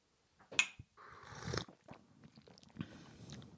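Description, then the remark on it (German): Slurping of tea during a tea tasting: a sharp sip, then a longer airy, wet sucking draw, followed by softer mouth and swallowing noises. No one speaks. “Prost, ne? Gut schlürf.”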